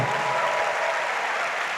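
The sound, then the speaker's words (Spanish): Steady, dense applause from an audience giving a loud round of applause to the Lord, a continuous wash of many hands clapping at once, fairly loud and sustained throughout with no voices standing out. “¿Cuánto le dan ese fuerte aplauso al Señor?”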